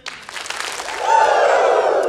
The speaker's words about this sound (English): so uh, would you guys give me two claps and a Ric Flair?